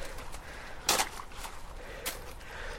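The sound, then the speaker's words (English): Two sharp, bright cracks of very thin ice in cold weather, with a metallic, zinging ring, spaced about a second apart against a quiet outdoor background with no talking. “That metallic sound. It's sort of very satisfying. It's very thin the ice.”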